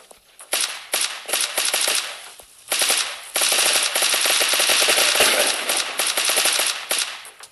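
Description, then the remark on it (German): Rapid bursts of video game gunfire aimed at a helicopter, dense automatic fire rattling in long sustained volleys with brief pauses between, loud and harsh throughout with no voices. “Jo, ich schieß, schieß um Mo, schieß so bestimmt um Helikopter.”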